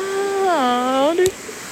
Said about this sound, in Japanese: この川の音がどれだけ入ってるか